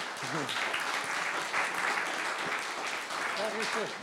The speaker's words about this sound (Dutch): Ja, applaus